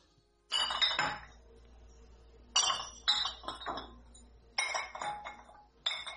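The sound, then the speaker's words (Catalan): Glass bottles clink and rattle against each other in four separate bursts, bright, each a quick cluster of chinks with short pauses between, no voices, while last year's wine is being bottled. “Si no ens donem manya, avui no acabarem d'embotellar la pedra seca de l'any passat.”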